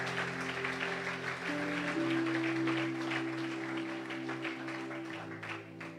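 A church audience claps steadily after a prayer, a dense wash of applause, while sustained organ-like keyboard chords hold underneath and shift once or twice.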